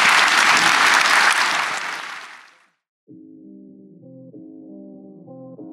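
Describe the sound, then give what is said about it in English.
An audience applauds the guests who joined on stage that morning with dense, steady clapping that fades away over a couple of seconds. A brief silence follows, then sustained electronic music tones begin. “Let's give them a round of applause, everybody.”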